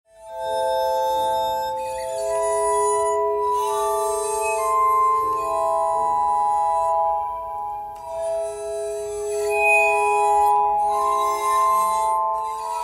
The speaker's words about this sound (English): It's called the armonica, which is uh, derived from the Italian word for harmony, and you can play 10 bowls at once. Uh, people have described it as like uh, the sound of angels singing. It's, uh, it's very ethereal. It's a delicate sound.